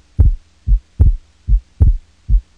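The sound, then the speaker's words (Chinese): A pounding heartbeat: deep, muffled lub-dub thumps in three steady pairs, loud and low-pitched, with a faint hum between beats and no voices. “当时我们迎面撞上了，我发现我的心跳加速。”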